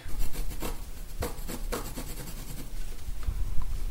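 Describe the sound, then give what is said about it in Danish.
A piece of fabric being cut by eye for a Geralt of Rivia costume, a series of dry, scratchy rasps and snips repeating at an uneven pace, fairly steady in loudness and tapering toward the end, with no voices. “Jamen, så lad os få skåret et stykke stof af.”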